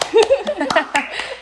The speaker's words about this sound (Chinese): 浪人精神哎、我们来，我们先拍手鼓励。